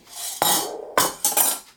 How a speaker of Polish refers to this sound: Opieram sobie brzeg mniejszego garnka o większy. Resztę wygarniam łyżeczką.